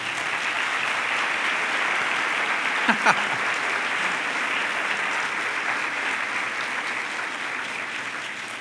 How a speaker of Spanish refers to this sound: Dale un aplauso al Señor, lo merece.